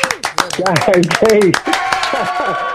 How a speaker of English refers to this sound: yes, the crowd applause. Welcome, welcome.